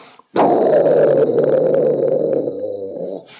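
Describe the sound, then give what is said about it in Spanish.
A voice imitates a dragon breathing fire with a loud, sustained rasping roar that starts abruptly and rumbles steadily for about three seconds before cutting off. “Así que el dragón le lanza fuego a Trucas.”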